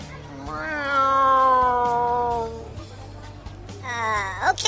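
A cat lets out a long, drawn-out yowl lasting a couple of seconds, then a pause, then a second shorter meow that rises sharply at the end, loud.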